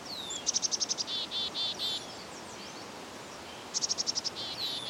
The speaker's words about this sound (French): Assoyez-vous un instant. Pourquoi ne pas profiter du calme de la forêt quelques minutes?